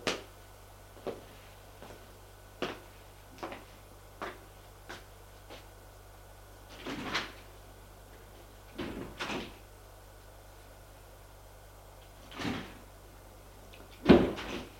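A run of sharp mechanical clicks and clunks, then longer whooshing slides as elevator doors open and close over a faint steady hum, ending with a louder thud.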